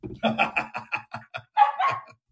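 A dog barks in the background of the film This Is Me Now: A Love Story, in a rapid string of short, sharp yaps, then lets out a couple of longer, higher whining barks. Moderately loud.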